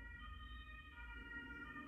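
An ambulance siren passing by in a city sounds steadily for two seconds, its sustained, slightly shifting tones riding over a low rumble of traffic, fairly subdued in level with no one talking.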